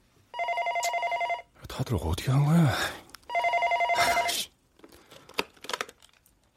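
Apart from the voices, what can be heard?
telephone ringing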